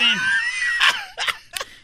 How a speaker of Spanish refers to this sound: Así fue la impactante explosión del volcán Popocatépetl. Por ahí teníamos un audio. Se oye cómo la mujer grita. ¡No! ¡Se oye muy feo!